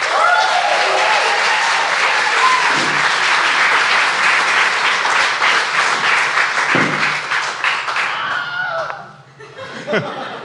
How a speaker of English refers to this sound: Can I have a big round of applause for the Wizard of Light and Sound